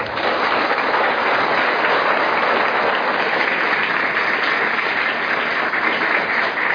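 A crowd bursts into loud, sustained applause, a dense steady wash of many hands clapping at once that holds at full strength for several seconds without fading.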